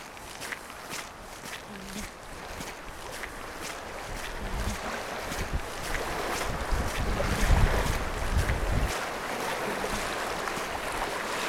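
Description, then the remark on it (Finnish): Sea waves wash steadily against a boat, with a low rumbling surge and gusts of wind buffeting the microphone throughout. The sound is continuous, swelling slightly in the middle. “Kylläpä se meri kimaltelee.”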